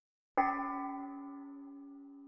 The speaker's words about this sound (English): Was that a bell? Yeah, some kind of metal, metal bell thing. I don't know. Probably hit some big pot.